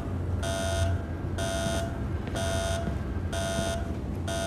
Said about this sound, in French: On devrait arrêter. Éteignez cette foutue alarme.